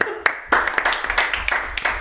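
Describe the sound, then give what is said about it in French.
Brief applause: hands clap in a quick, fairly steady rhythm about four times a second, moderately loud, with voices murmuring underneath, applauding a gift of a case of wine from the sponsor, Domaine de Pélissol. “On va peut d'applaudir toutes les 10 secondes.”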